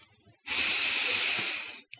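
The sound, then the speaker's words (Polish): A single deep breath, one of three deeper breaths being taken: a breathy rush of air lasting just over a second with a steady, hissy texture, followed by a brief faint puff. No one speaks. “Bierzemy trzy głębsze oddechy, żeby wyłączyć umysł.”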